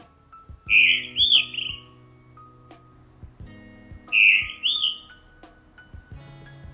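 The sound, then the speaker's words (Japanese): A blue rock thrush sings two clear, warbling phrases separated by a pause, bright, over a steady low hum in the background. It sings around 4:30 in the morning while still dark, from a church roof. “はいこんな鳴き声でね、えー、なんかこうさあ起きろよというようなねあの音なんですけども鳴き声なんですけど磯ヒヨドリではないかと思われるんですね”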